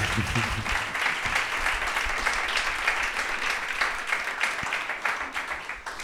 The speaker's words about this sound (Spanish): No te vas a quedar sin aplauso.